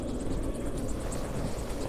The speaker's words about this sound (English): Both helicopters circle for a minute and then land about 50 yards away from a tiny, motionless figure on the snow. We just landed the helicopters.